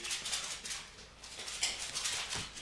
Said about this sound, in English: And the, the dogs are um, tapping their feet down the hallway.